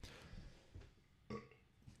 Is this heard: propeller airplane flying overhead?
no